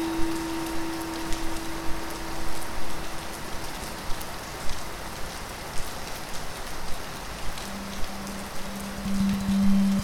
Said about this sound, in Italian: e mentre termina la pioggia, lasciando la terra bagnata